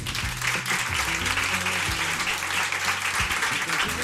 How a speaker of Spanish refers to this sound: Un aplauso para Sony que está por aquí. Claro que sí.